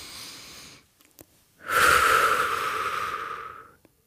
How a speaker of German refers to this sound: Komm, es klingt so, wenn mhm. ich durch die Nase einatme. Das ist das leiseste, was ich kann.